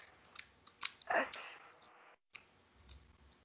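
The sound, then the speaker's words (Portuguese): Wet mouth clicks and smacks in an irregular rhythm from someone chewing gum with an open mouth, probably a person imitating the sound, with a brief silent gap partway through. “Mas, bicho, viada, pelo amor de Deus, se você entender a minha língua, para de querer fazer a doida de querer dublar com o chiclete na boca.”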